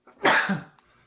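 A single sharp sneeze, a sudden breathy burst that peaks quickly and trails off within about half a second, with nothing else around it.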